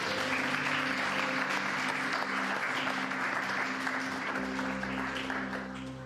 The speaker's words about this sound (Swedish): Nu ska inte jag stå här och ta upp en massa värdefull tid, men hälsa dem välkomna med en riktigt stor applåd.